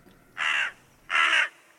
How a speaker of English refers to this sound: A crow landed on a nearby wall beyond the apple tree and started fluttering between the top of the wall and something just on the other side of it.